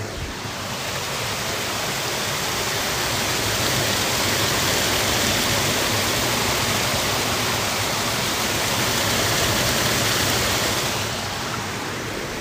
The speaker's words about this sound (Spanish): Con una grabadora profesional se escucha como un, una cascada muy grande. Es no tan grande realmente. Solo que es maravilloso poderse imaginar cómo el agua cae, escucharla, tenerla de fondo.